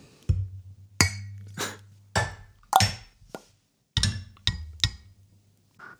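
Glasses clink and knock together about eight times at an irregular pace during a toast, fairly loud, each sharp tap carrying a dull thud, with no voices.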